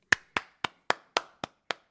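hand clapping

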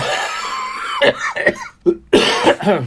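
coughing

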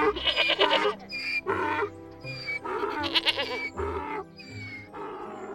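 goat bleating

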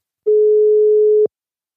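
telephone ringing tone

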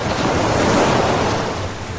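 ocean waves

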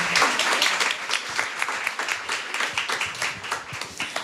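audience applause

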